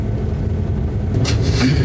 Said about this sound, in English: Why are we in a train carriage at 9 p.m.?